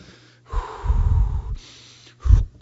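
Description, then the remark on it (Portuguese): Two deep, forceful exhaling breaths, a long one lasting about a second followed by a shorter, sharper push of air, with quiet pauses between. “Você respira, vai respirando, vai respirando, vai botando para fora aquela raiva para fora.”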